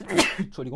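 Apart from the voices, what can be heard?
sneeze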